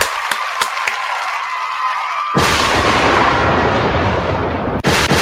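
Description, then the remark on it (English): A few scattered claps give way to loud, dense applause as the hosts give themselves a round of applause, filling the rest of the moment and sounding like a big crowd clapping hard. No one speaks. “We gotta give ourselves a goddamn round of applause as well.”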